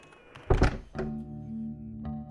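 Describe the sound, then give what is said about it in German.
A door is shut with a heavy thud, followed by a second softer knock and a steady low hum, then one faint click near the end. No one speaks. “Mach Tür zu.”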